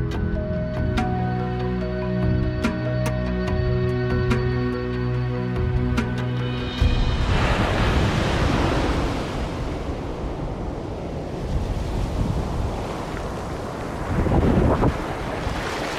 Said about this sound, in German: Vor mir erstreckt sich eine tiefblaue, wogende, schier endlose Masse. Das Meer. Genauer der Pazifik. Ich stehe hier am Strand von Los Angeles bzw. von Santa Monica